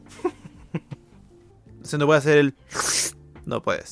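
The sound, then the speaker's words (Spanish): A person imitates slurping soup with a single loud, drawn-in hissing slurp lasting about half a second, set between short bits of speech. “Ahí sí puedo decirlo en New Jersey, Estados Unidos, está prohibido sorber la sopa.”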